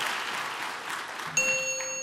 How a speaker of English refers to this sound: Well, was that the bell? I just yeah. Oh, there you I go. I finished ahead of time.